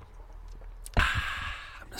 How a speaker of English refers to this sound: slurp of coffee.